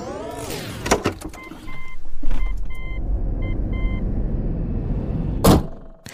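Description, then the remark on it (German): An electric car maneuvers into a parking spot at the McDonald's headquarters in Munich, where there are charging stations, with a low, steady hum, short electronic parking beeps repeating at a steady pace, and a rising whine early on, ending with a firm door thud. “aber in München stehen mittlerweile natürlich auch E-Ladesäulen und da hänge ich mein Auto dann gleich dran, während wir den Vice President Technology Löcher in den Bauch fragen.”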